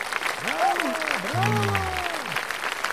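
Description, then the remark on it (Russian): A big audience bursts into loud, sustained applause, dense clapping filling the whole moment, with a sliding, voice-like tone rising and falling over it. “Еще секунда, и она выскочила из резервуара навстречу грому целой буре аплодисментов.”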